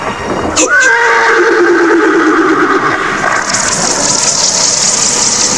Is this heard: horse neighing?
yes